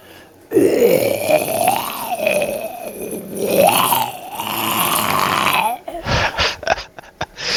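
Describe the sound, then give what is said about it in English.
A voice imitates a zombie by gargling water, making a long, rough, wet gargling groan with rising and falling pitch for about five seconds, then breaking into short choppy gurgles and splutters. “so do you hear how gargling that water mm-hmm. just like adds so much sound to that?”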